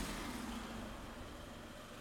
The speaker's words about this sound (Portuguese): Foda-se, estes carros fazem barulho aqui, não é? Este Seat Ibiza, meu. Com o vidro todo fosco. Está o vidro todo fosco.